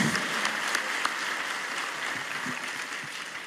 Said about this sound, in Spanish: Por eso, ¿qué te parece si le damos un aplauso al Señor?